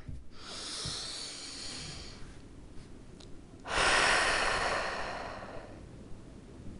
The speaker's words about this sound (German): Wir atmen nochmal ein und atmen aus. Und wenn du ausatmest, dann weißt du, welche Person du dir gleich aufschreibst.